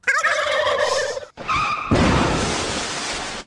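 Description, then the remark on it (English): A turkey gobble sound effect: a loud, rapid warbling burst, a brief pause, another gobble, then a harsh, rushing noise that fades out. No one speaks. “I'm a turkey. I'll give myself one, dude.”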